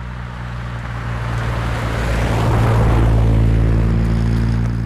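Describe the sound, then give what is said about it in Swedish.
A car engine drones steadily at high speed with a deep, even hum, and a rushing wind-and-road noise builds louder over a few seconds, continuous with no voices. “Bilen körde med hög fart.”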